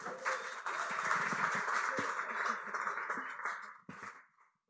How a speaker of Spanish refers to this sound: gracias por venir y démosle un aplauso, vean.